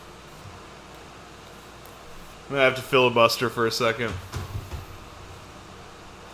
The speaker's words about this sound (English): I, I hear an incoming breeze. Is that air conditioning? yeah, the, the the window unit just kicked on. It sounds like we're fucking in a jet engine.